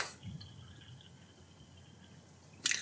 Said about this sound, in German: Schüttet, schenkt sich jemand ein Glas Wasser ein? Ja. ja wie, wie, hörst du, dass das Wasser ist? Das ist Wahnsinn. Ja, am Sprudeln. Ah. Das wäre für Bier wäre das zu zu viel Sprudel gewesen.